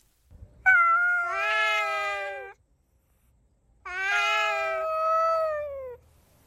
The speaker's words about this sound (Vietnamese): Bọn mèo hoang thống trị cả khu phố, cứ đến đêm là chúng lao vào cấu xé nhau ẩm ý để phân chia thứ bậc. Đến mùa động đực, chúng rên rỉ thứ âm thanh kỳ lạ.